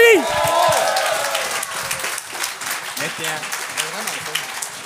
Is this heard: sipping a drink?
no